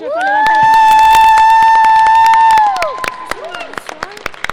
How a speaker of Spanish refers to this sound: Un aplauso especial para ella,